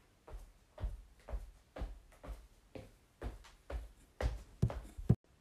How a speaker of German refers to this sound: Jedoch hörte er leise ein Trampeln näher kommen.